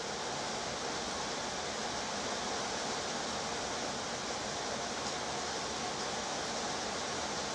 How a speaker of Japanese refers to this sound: あーすごくいい雨の音で褒めたらもっと強くなった気がします